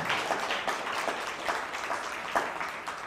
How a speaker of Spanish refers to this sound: ¿Le parece estupendo esto? Bueno, pues denle un fuerte aplauso, a ver, al Eterno, no a mí.